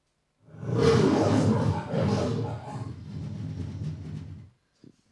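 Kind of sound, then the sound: animal, lion roaring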